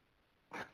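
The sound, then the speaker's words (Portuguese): A single sharp sneeze bursts out after a moment of near silence, loud, with a brief breathy tail as it fades. “Ó, espirro.”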